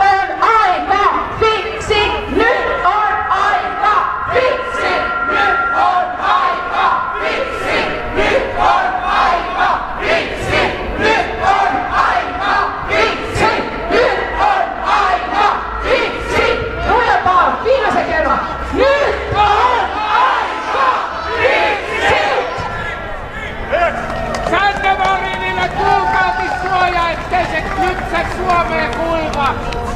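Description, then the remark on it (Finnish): A large crowd shouts and yells loudly and continuously, many voices overlapping in a dense, energetic roar that barely lets up for the whole stretch. “Hei, mut huutamaan tänne on tultu.”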